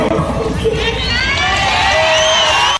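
A large concert crowd cheers loudly, with shouts and whoops rising over steady applause, a dense, continuous roar that stays full throughout.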